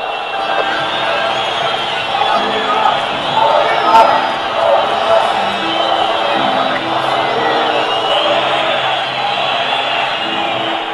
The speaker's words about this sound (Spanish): la gente muy emocionada, eh, haciendo ¿no? el, recibimiento a su club.